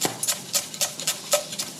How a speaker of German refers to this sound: Oh, ich mag ja dieses Geräusch, ne, wenn du schneidest.